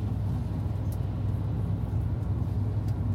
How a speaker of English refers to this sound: Mel and I spent most of that time in silence, each of us staring out the window as the black bus sped through the wooded farmland of northern Missouri in search of someone named Leonard.